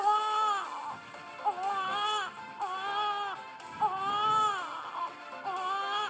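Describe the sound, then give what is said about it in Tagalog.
A baby cries in long, wavering wails, each sustained cry followed by a short breath, repeating steadily and loudly with no other voices. “iyak ng isang sanggol.”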